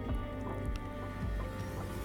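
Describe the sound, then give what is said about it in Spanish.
A glass of water being served, with soft sloshing, squishing and dripping liquid sounds running steadily through the short moment, and no voices. “En fin, Aquí tiene su vaso con agua.”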